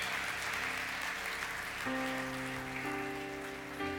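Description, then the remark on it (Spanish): An audience of adults applauds a group of children steadily for about four seconds, a dense, even clatter of many hands. Partway through, sustained musical tones come in underneath the clapping. No one speaks. “Quiero que todos los adultos le den un aplauso a todos estos niños porque se están portando de maravilla.”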